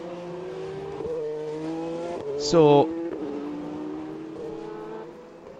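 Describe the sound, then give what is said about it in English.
Endurance race car engines drone steadily on a circuit, with one loud, sharp burst as a car passes midway, while a commentator talks over the noise; car number seven runs in eighth position on a clear track at the start of the back straight. “clear track for Conway in the eighth position, number seven”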